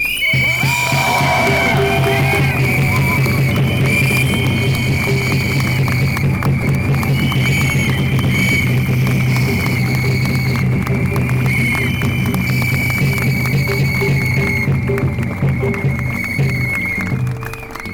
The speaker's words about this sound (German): In diesem Sinne bitte um einen Applaus dafür.